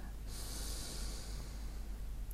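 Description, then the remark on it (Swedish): A long, steady inhale drawn in through the nose, fairly soft, a breathy rushing sound that starts a moment in and continues without any talking, taken during a grounding breathing meditation. “Så vi andas in Jag är.”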